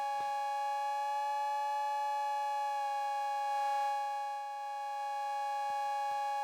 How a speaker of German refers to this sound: Das heißt, dieses Modul da oben, das ist ein, nur eine Cowbell, oder? Genau. Äh, das ist äh, tatsächlich ein Modul, was einfach nur diesen Cowbell-Klang erzeugt.